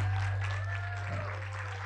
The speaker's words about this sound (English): All righty, Come on, get a little hand clap this morning.